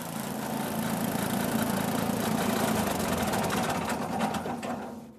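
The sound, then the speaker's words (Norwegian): A small track-cutting machine on a wire runs steadily with a dense, buzzing mechanical whir and rapid rhythmic clatter as it cuts the tracks in the in-run of a ski-flying hill, holding a constant loud level before easing off at the very end. No one speaks. “Og mens vi sitter der midt i tilløpet, freser fresen opp spora som verdens beste skiflygere skal bruke.”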